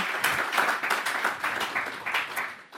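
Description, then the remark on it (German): Audience applause welcoming a guest, the founder and CEO of BMZ Group: dense, steady clapping from many hands, bright and crackly, sustained at an even loudness throughout with no voices over it. “Einen herzlichen Applaus für ihn.”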